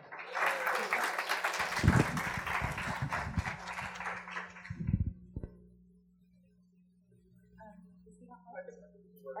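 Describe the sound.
An audience applauds steadily for about five seconds to welcome a speaker, a dense wash of clapping that tapers off, followed by a quieter stretch where a single voice begins talking.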